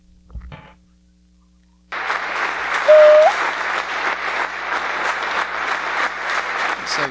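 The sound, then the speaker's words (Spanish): After a brief thump and a couple of quiet seconds, a large crowd bursts into loud, sustained applause, a standing ovation for Messi, the dense clapping continuing steadily, with a faint low hum underneath. “Pero es estamos viendo aquí en pantalla, este, pues están haciendo una ovación de pie, ¿no?”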